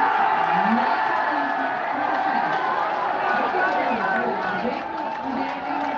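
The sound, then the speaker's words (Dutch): A large crowd of BoerBurgerBeweging supporters erupts in sustained cheering and shouting at the Dutch Senate election exit poll, a dense roar of many voices holding steady for several seconds, with scattered whoops and excited chatter mixed throughout. “Je hoort de reactie van de boer-burgerbeweging op de exit poll van de Eerste Kamer.”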